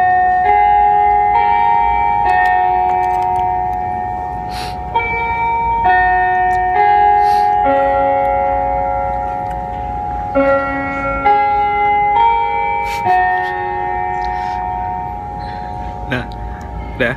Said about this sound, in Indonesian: Terus gini, uh, di Indonesia geografi, bentar, lagi ada ini. Bel. Bel.